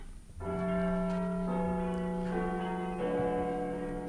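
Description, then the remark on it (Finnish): A clock bell strikes nine in slow, evenly spaced chimes, each deep, ringing tone overlapping the lingering hum of the one before, loud and with no voices. “Kello lyö yhdeksän.”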